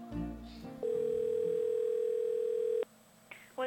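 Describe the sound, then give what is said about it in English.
A steady, continuous telephone dial tone hums loud for about two seconds, preceded by brief handset clatter and followed by a few short beeps. “Hey, now I'm returning to what some people call the other woman in my life, the telephone.”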